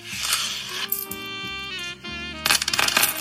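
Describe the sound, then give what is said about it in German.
A coin rattles into the coin slot of a sofa bed, followed by a sustained metallic ringing and a final clatter of mechanism noise, fairly loud with no voices. “Sag mal, ha, hat die einen Münzeinwurf?”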